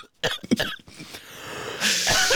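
A loud burst of several harsh, raspy coughs in quick succession, followed by a strained, breathy wheeze as someone who has swallowed a nut the wrong way struggles to clear their throat.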